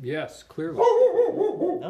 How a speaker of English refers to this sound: sorry, that's my dog. If you heard that.